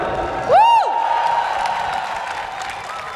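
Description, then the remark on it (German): A crowd at a public transport demonstration applauds and cheers steadily for VAG transit workers, with a sharp rising-and-falling whistle or whoop near the start cutting above the dense clapping noise. “Ein ganz großer Applaus für die Arbeit, die ihr jeden Tag leistet für uns alle.”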